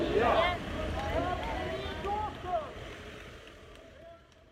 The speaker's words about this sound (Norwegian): I dag er det tilbake til vanlig trafikkspetakkel i Majorstadkrysset. Som hver dag.